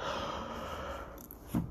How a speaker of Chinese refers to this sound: 然后，嗯，最近讲赛斯书都会打哈欠。